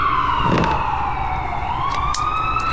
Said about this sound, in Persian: هنوزم از صدای آمبولانس هنوزم از صدای آمبولانس مضطرب میشم باورم نمیشه که چنین لحظاتی رو تجربه کردم